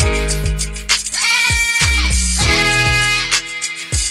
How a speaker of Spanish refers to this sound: Una cabra sin autotune y con autotune.